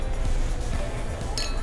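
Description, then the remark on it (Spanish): Glasses clink together once in a quick, bright toast, against a steady, low background rumble of room noise. “Salud.”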